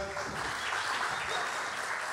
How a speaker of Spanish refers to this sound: Un aplauso para recibirla.